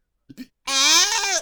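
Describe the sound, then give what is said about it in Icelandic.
A person imitates a goat's bleat: two quick breathy catches, then one loud, sustained, quavering nasal 'baa' held for nearly a second, alone. “Býtu, býtu, býtu, býtu Sem geit,”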